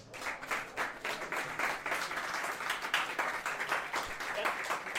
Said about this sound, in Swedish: Uh, en stor applåd